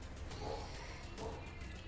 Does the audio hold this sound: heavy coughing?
no